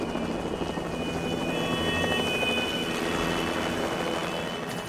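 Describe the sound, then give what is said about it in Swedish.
An air ambulance helicopter approaches an island at night to land in a horse paddock, its engine and rotor roaring steadily throughout, a dense, loud rumble with a rapid thudding beat and a high whine running over it, with no voices. “en hästhage som är tillräckligt stor för ambulansen att landa i”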